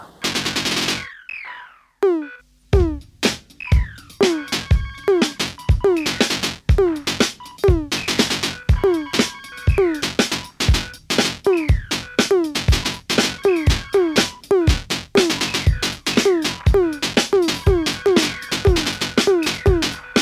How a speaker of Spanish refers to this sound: El disco parte con un tema que se llama ….